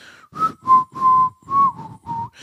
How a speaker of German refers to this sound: Und dann habe ich das so gepfiffen.